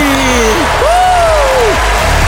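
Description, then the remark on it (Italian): A burst of dense, steady applause fills the whole moment, loud, with a long rising-and-falling whoop or whistle riding over the clapping. “un applauso a noi.”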